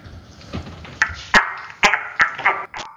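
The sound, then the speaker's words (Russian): A dog cries out loudly during an epileptic seizure after losing consciousness and falling, a rapid series of about six sharp, strained yelps in under three seconds, with no one speaking. “Я, здесь начинается крик, здесь он начинает кричать громко.”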